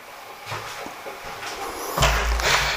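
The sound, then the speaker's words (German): A pet plays with a door, knocking and rattling it repeatedly, with a few light thumps followed by louder, heavier bangs near the end, and no one speaking. “Ja, warum der dauernd mit der Tür hier spielt?”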